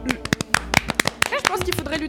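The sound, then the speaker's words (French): Brief, scattered applause for a new regular columnist joining a show's group: a dozen or so sharp, crisp claps in an uneven rhythm over about two seconds, with voices murmuring and exclaiming underneath. “et donc on peut l'applaudir”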